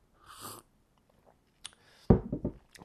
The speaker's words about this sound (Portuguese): Olha, Arthur, até vou dar aqui um golinho em tua honra.